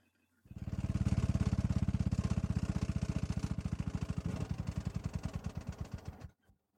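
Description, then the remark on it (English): A car engine runs with a loud, steady low rumble, then its rapid firing pulses gradually slow and sputter before the engine cuts out abruptly, leaving silence. “What in the world? Did the car just die?”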